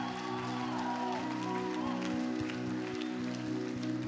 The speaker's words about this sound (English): Come on, can we give God a big clap of praise? Amen. Come on, let's give him a huge clap of praise.